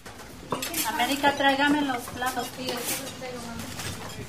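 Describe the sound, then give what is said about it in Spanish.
Dishes and cutlery clatter and clink in a busy family restaurant kitchen at lunchtime, with indistinct voices talking over the steady clatter. “Es la hora del almuerzo y …, de 26 años, está ayudando en el restaurante de su familia”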